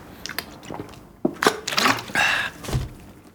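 Quiet handling of a drink: a few soft clicks and liquid sloshing, then wet gulping and swallowing sounds from someone taking a sip of water. No one speaks.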